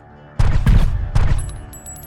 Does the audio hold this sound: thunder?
no